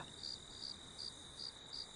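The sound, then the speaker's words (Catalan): Crickets chirp in a steady, evenly spaced rhythm, roughly every third of a second, over a constant high insect drone. The sound is fairly faint, with no voices. “Però tot va començar per culpa dels grills. Els grills i el seu carrisqueig. Nit i dia.”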